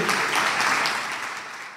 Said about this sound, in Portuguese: Vamos aplaudir ao nosso Deus?